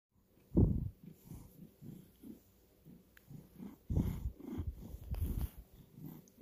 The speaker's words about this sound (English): Thank you, …, for that lovely purring intro.